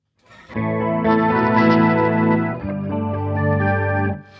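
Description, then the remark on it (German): A sustained, heavily processed electric tone through a modulation pedal set to 100, combining an octave-down voice with the original signal, with a higher octave voice layered on top a moment in; thick, shimmering and slightly gritty, loud, with no talking. “Genau, und jetzt nochmal das äh, Höhere dazu.”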